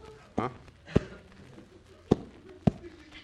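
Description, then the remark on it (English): Four heavy, thudding footsteps land at a slow, uneven pace over a low murmur of background noise. “Sounds like the walking man.”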